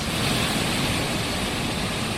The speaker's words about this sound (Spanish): Las olas, buscadas por los surfistas, mueven con fuerza las grandes rocas del litoral.